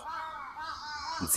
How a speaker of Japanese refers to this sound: すいません、カラスがうるさいですけども